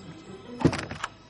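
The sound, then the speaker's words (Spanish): A door swings shut with a dull thunk as someone enters a building from its rooftop, followed by a couple of softer rattling knocks as it settles, over a quiet low hum. “Entra en el edificio y cierra la puerta.”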